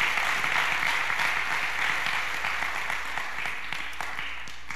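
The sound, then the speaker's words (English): A crowd applauds steadily, a dense wash of clapping with scattered cheers, holding strong for several seconds before easing slightly toward the end. “Come on, make a little bit of noise in this place.”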